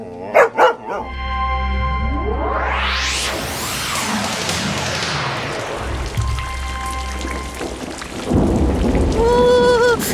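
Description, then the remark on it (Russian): A fierce wind and rain storm on a dark evening at the Optina skete roars steadily and loudly throughout, with gusting noise and a deep low rumble beneath, a few sharp bursts near the start, and no one speaking. “какой ветер и дождь!”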